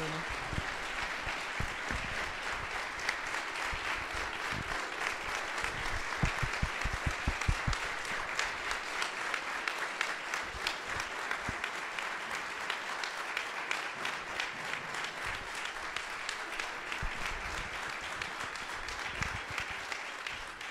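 Sustained audience applause, a dense wash of many hands clapping steadily for about twenty seconds, loud and even throughout with scattered sharper claps standing out.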